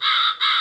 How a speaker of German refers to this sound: Das ist schon besser. Oh ja, das ist ein Rabe.